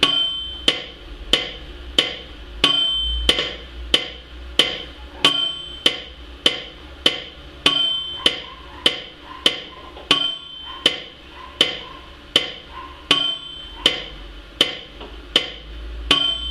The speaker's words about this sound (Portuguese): Vou botar o um metrônomo aqui. Vou dar para vocês o tempo que vocês podem treinar no metrônomo de vocês.